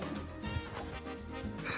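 Several loud dog barks come in quick bursts, layered over a dense, busy background that fills the whole clip.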